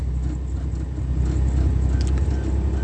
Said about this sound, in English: Okay, I'm back. I'm in the car right now. I'm going to plug in the phone.